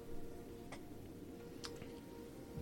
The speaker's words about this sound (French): Tu entends le souffle qui te rend presque sourd et un espèce de tic-tac de cette horloge devient presque assourdissant.